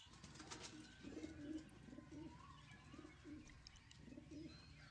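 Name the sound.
pigeon cooing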